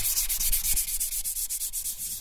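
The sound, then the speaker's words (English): Hand sanding of guitar wood with fine thousand-grit sandpaper in a guitar workshop, a steady series of quick back-and-forth scratchy strokes, fairly loud, with no voices. “Thompson sands everything by hand.”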